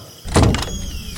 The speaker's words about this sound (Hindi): लेकिन जीवन ने दरवाजा थोड़ा सा खोला